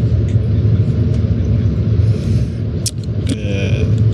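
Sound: bus interior engine rumble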